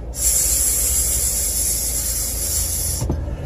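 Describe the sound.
A voice imitates the hiss of escaping air, like the hose used to inflate car tyres: one steady, sharp hiss held for about three seconds before cutting off abruptly, with no talking around it.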